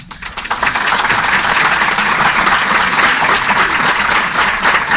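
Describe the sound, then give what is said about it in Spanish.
A crowd applauds its leader steadily for the whole stretch, a dense, even wash of many hands clapping at a constant loud level with no voices standing out. “les pido que le den un aplauso a nuestra líder.”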